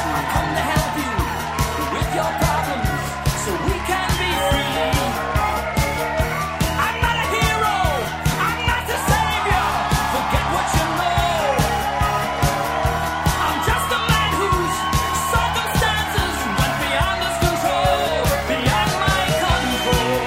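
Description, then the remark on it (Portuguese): A large crowd claps and cheers steadily for the cyborgs for about twenty seconds, with whoops and shouts rising over dense, continuous applause that stays loud and full throughout. “E, e, e, e uma salva de palmas para os ciborgues”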